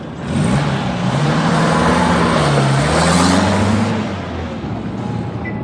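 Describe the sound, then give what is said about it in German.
A taxi's engine rumbles as the car drives to the train station and accelerates, the pitch rising and falling steadily before the motor noise eases off toward the end. “Hallo, Taxe?”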